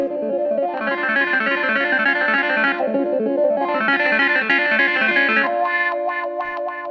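Funky clavinet keyboard riff with a bright, buzzy tone and rapid rhythmic notes, played steadily and loudly with an effects-laden, slightly distorted sound, ending on a sustained chord with staccato stabs.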